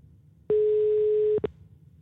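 A telephone ringback tone of an outgoing call sounds from the earpiece: one steady electronic beep lasting about a second, quickly followed by a short second blip, fairly loud over faint line noise, with no voices.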